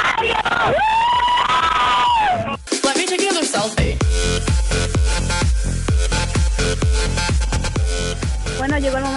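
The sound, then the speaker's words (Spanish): A crowd shouts the Mexican independence cry "¡Viva México!" together for about two seconds, then after a brief drop, loud music with a steady, punchy beat takes over. “como ya escucharon, ya está el grito de independencia.”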